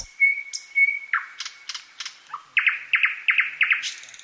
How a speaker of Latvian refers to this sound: Un otra lieta, ka vajadzētu izvairīties stāvēt eh, blakus eh, kādam vienam skaļu dziedošam putnam, nu, piemēram, dziedā lakstīgala